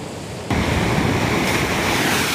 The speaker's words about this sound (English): The storm surge and really high surf wiped out part of this beachfront road. You can see it's just gone.